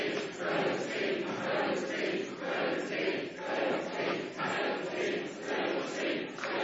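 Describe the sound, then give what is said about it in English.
A crowd cheers and shouts continuously, a loud, dense roar of many voices that swells and dips in rhythmic waves, chanting encouragement to cheer on participants trying to make it to Christmas, with no single voice standing out. “And you're gonna cheer them on to try and see if they can make it to Christmas.”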